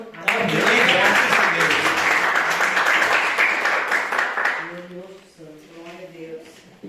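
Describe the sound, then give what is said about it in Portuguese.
An audience bursts into loud, dense applause in praise of the Lord that fills the first few seconds, then fades as a single voice begins speaking over the last of the clapping. “Eu agradeço a oportunidade de palmas que louva o Senhor.”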